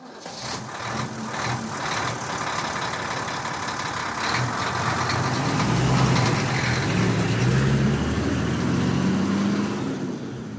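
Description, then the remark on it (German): A heavy truck engine drones steadily, with a low rumble and rattling noise as it travels along bumpy country roads to another town at night, no voices present. “Die drei Figuren verbrachten eine unruhige Nacht, während der Lastwagen über holprige Landstraßen in eine andere Stadt fuhr.”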